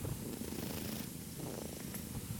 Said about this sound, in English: Uh, there is another cat here, the second cat, Ido, which is short for I Don't Want Another Cat. Hey, Ido.